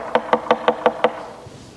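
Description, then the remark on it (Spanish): Six quick, evenly spaced knocks rap on a wooden door, fairly loud, with no voices, and then it goes quiet. “No dice, toca el timbre, dice, llame. Llame y la puerta se abrirá.”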